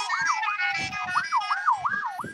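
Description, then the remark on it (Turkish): A fire engine siren wails in quick rising and falling sweeps, loud, with low rumbling engine and outdoor noise underneath, at a fire spreading to houses in strong wind. “Burada şu anda helikopterler, uçaklar, arazözler, itfaiyeler.”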